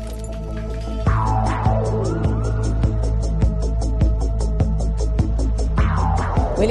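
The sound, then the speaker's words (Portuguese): A military police helicopter's steady rhythmic rotor chop and deep engine hum fill the air, loud overhead, as it flies over the area of an explosion, with a siren-like wail sweeping faintly in the background. “helicóptero da PM sobrevoa a área.”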